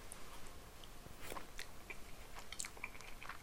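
Eating sounds from someone having Peyang Goku-Gekikara Tantan, an extremely spicy cup noodle: several sharp, wet chewing and biting noises at an uneven pace, fairly quiet, with no talking.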